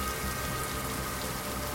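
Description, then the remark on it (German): Steady rain falls continuously, a dense, even hiss of drops pattering on a surface, moderately loud, with no voices or other sounds. “Abgesehen von Regen seht ihr sonst nichts, nein.”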